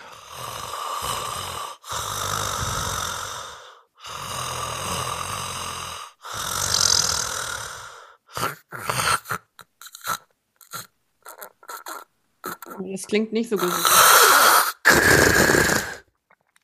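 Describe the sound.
A person imitates loud, raspy snoring to demonstrate a breathing pause, where the relaxed tongue falls back and blocks the throat: four long rattling snores in a steady rhythm, then choppy snorts and gaps like a stalled breath, before a short spoken remark.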